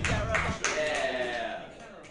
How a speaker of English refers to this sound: And right now, clap your hands together for your host of the night.